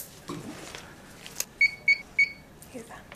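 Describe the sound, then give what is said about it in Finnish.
An IV infusion pump (drip device) beeps three times in quick, even succession, short clear electronic tones, with faint background murmur and noise before and after, as a cancer patient's medication infusion is started. “Siinä se on tippalaite ja kaikki kunnossa.”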